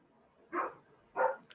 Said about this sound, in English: And of course, the doggos are going to bark. Of course, the one that doesn't have a collar on is barking. And they, they always bark and then come running in here to us to be like, We barked. We barked.